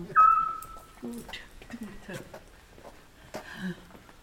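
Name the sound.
owl calls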